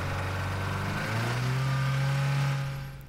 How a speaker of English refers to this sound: The driver wasn't about to give up though despite the vehicle being held back by a fallen road sign and that concrete window frame, revving the accelerator until the wheels spun up burning rubber.